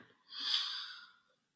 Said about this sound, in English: And deep breath.